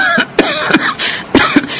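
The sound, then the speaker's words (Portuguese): A woman coughs in two quick pairs of short, dry bursts, separated by a brief pause. The coughs are fairly loud, with no talking. “Mãe, e essa sua tosse? A senhora precisa ir ao médico.”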